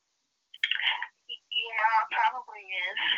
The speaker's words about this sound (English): And is that your phone, darling?